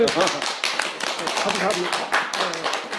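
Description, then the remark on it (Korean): An audience claps together to welcome a lecturer at a two-day lecture course, in a dense, steady burst of applause. Many hands overlap into a bright, crackling wash that holds its level for about three seconds. “우리 좀 박수 한번 쳐드릴까요?”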